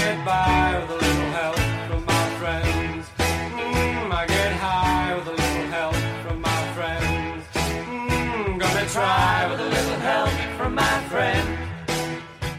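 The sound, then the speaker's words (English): A rock song played from a studio soundboard plays loud and steady, with a driving drum beat, full band instrumentation and a singing voice carried over the mix, filling the whole stretch without any talking. “comeback there with little …, your favorite band”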